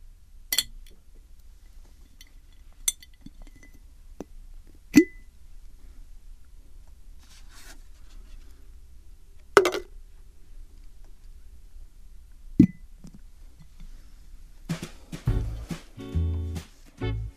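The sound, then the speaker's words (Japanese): Small items are dropped one at a time into a glass jar, each landing with a sharp, bright clink every few seconds. A short burst of rattling and scraping follows at the end, with no voices. “では今日集めた隙もガラス瓶に入れたいと思います”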